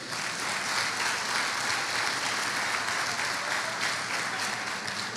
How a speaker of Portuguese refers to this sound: Aplauda Jesus por isso.